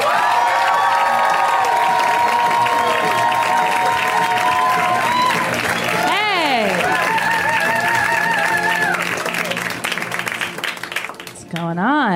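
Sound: audience applause and cheering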